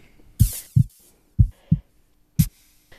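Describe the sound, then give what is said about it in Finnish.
Heavy, dull footstep thuds transmitted through a building's structure, about five low booming impacts in an uneven walking rhythm, some with a brief rattle or scrape, with no talking. “Tämä toinen äänityyppi on nämä askeläänet, eli nämä, jotka kulkee sitten runkoa pitkin.”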